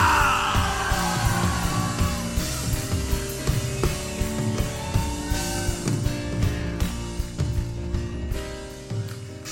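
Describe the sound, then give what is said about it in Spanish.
A large crowd roars and yells together in a sustained, loud war cry, with music and drums pounding underneath for several seconds. “¡Un grito de guerra!”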